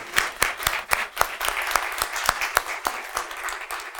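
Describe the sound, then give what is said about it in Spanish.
An audience applauds, a steady patter of many hands clapping with sharp, bright strikes recurring throughout, moderately loud and continuous with no voices over it. “El aplauso no es para mí, es para esa palabra que te dice que aun cuando tu padre y tu madre te abandonen, ¿sabes qué?”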